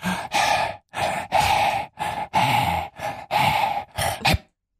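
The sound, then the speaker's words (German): A voice pants out a song tune in a string of about eight breathy, rhythmic huffs, each a short burst of airy noise with brief gaps between, fairly loud, with no words spoken. “Du wolltest so, irgendwelche fertig. Lieder hecheln.”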